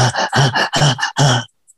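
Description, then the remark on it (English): A voice imitates heavy, anxious chest breathing, in through the mouth and into the chest as in anxiety's fight-or-flight mode: about four loud, rapid, rhythmic breaths with a throaty, groaning edge, ending in a short silence. “Our we start breathing in through the mouth, we're breathing into the chest, we're breathing heavy.”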